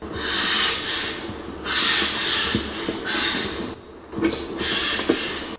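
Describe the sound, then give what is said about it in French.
Harsh, raspy screeches from several Eurasian jays, coming in repeated loud bursts about a second long with short pauses, overlapping one another. No one speaks. “Pas très mélodieux, mélodieux vous autres, mais nous allons faire avec, d'autant plus que vous êtes en groupe.”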